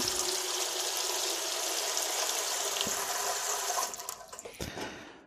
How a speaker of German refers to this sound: Ich bereite jetzt hier gerade den, ähm, den Dampfdrucktopf vor und werde jetzt hier mal den Dämpfeinsatz zum Einsatz bringen. Entsprechend gebe ich jetzt etwas Wasser da rein.